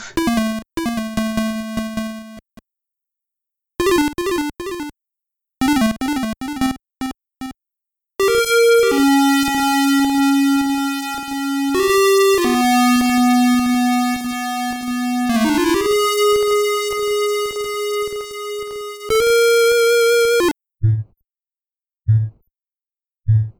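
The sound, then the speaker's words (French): Buzzy chiptune square-wave tones from a PSG (Programmable Sound Generator) sound chip with three tone channels and a noise channel: short warbling bursts, then a run of sustained stepped notes, ending with a few brief low blips. No voices. “il, a, juste un processeur qui utilise les sons PSG, Programmable Sound Generator, qui est quand même assez, assez particulier au niveau du son.”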